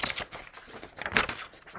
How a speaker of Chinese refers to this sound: 大家可能会听到很多。翻页的声音。